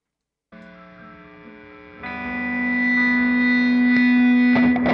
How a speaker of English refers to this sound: Now, if you listen this at the end, there's a little snippet of what layering up means when you're using a guitar and a delay pedal when you're stacking notes one quarter on top of the other one. Check this out.